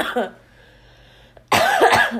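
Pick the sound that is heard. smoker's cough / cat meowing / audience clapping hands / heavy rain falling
smoker's cough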